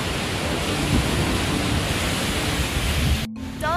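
Steady, dense roar of surf washing in without a break at a beach in Bali where people are surfing, broad and hissing like breaking waves, loud throughout, then cutting off abruptly near the end before a brief faint trace returns.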